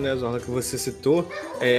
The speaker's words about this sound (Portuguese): Desculpa o barulho do cachorro aqui, ele tá querendo conversar também.